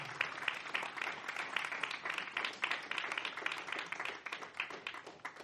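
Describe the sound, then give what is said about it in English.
A church audience claps steadily for several seconds as a clap offering to the Lord during preaching, a dense wash of overlapping handclaps at a sustained level without pause. “Give the Lord a nice clap offering.”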